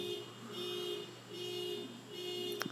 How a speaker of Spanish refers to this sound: Y ahora discúlpenme que parece que intenta que le dieron un cantazo a un carro aquí al lado de, de mi casa y está sonando un montón.